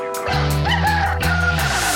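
A rooster crows loudly and close by, one sustained, strongly pitched call that lasts about two seconds, with no talking around it.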